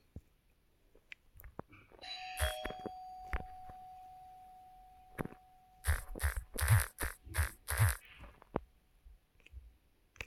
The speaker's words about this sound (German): Ich habe geklingelt.